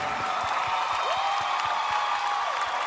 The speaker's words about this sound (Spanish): Y que se lo lleven ahora sí, a entregarle el premio a la excelencia. Un fuerte aplauso para este hombre valiente